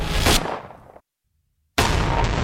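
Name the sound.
gunshot sound effect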